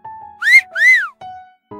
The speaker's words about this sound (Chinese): 突然，她听到树下传来口哨声